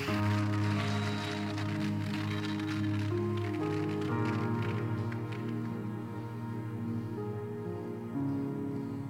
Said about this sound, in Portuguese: Vale aplaudir o Senhor, você pode aplaudir a Ele. Ah, pode ser melhor, vai.